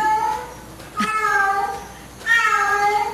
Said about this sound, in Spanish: Está en celo la gata.